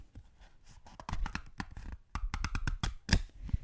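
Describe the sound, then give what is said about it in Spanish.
Quiet handling of a small lined notebook, with a quick series of crisp paper rustles and page flips in irregular bursts, and no talking. “Mira, mira, ASMR de libretita.”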